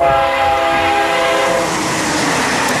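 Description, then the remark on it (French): The 7:43 Eurostar Paris–London high-speed train roars past loudly, its horn sounding a steady multi-tone blast for over a second before giving way to the rushing rumble of the passing carriages. “vous entendez là l'Eurostar Paris-Londres de 7h43.”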